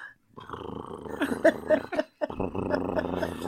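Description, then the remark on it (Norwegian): A male alligator's mating bellow, made around March to attract females: a deep, throaty, growling rumble that holds for a couple of seconds, breaks briefly, then resumes. It is loud, with no one talking. “Og da lager eh, alligatorpappaene en sånn veldig sexy lyd da, for å så tiltrekke seg eh, fru hun, hundene.”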